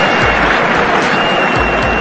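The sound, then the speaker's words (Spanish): Dense, continuous applause fills the whole stretch at a steady, loud level, a wash of clapping that never swells or fades, an applause sound effect that got stuck repeating. “Ay, qué se trabaron en los aplausos.”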